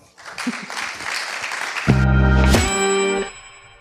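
A burst of applause claps for about two seconds, then gives way to bright, ringing chime-like tones with a low hum that sustain and fade out.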